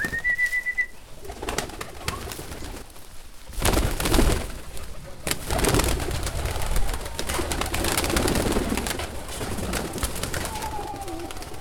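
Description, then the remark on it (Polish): Pigeons kept by a village farmer coo in a low, steady murmur, with a short whistle at the start and bursts of fluttering noise mixed into the outdoor background. “O, a tutaj jeden z rolników hoduje gołębie.”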